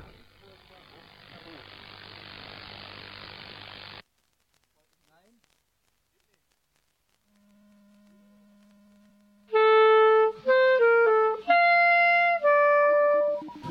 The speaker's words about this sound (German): Wir schalten jetzt auf den Digitalstandard DRM um. In Ihren Analogradius werden Sie jetzt ein Rauschen hören. Wir kommen gegen 10 Uhr wieder auf analog.